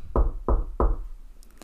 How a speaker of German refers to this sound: Also gingen dann die beiden gemeinsam zum Haus von Abu Jahal und klopften.